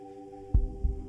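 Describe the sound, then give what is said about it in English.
A pounding heartbeat: two deep, muffled thumps in quick succession, heavy, over a steady low electrical hum. “My heart may as well be broadcasting Morse code.”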